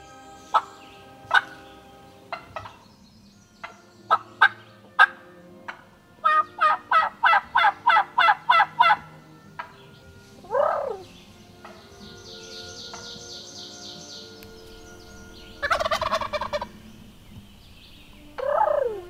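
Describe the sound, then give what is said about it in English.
A recording of wild turkeys from YouTube: sharp, scattered clucks, then a rapid rattling gobble burst, followed by more gobbling outbursts and a soft trilling purr, clear with no talking. “And since Mac decided his voice was too pure for this recording, please enjoy these wild turkey sounds I found on YouTube.”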